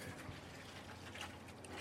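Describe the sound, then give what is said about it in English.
Milk pours in a steady, unbroken stream into a mixer bowl of flour, sugar, salt and yeast for croissant dough, a soft continuous splashing trickle that stays fairly quiet and even for a couple of seconds, with no one talking. “Flour, sugar, salt, and we'll also put a little bit more yeast now we're just pouring the milk.”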